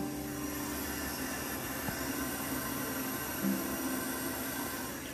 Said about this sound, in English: Let's see if this coffee is ready. I think so. It sounds like it's boiling. I can not tell on this new one.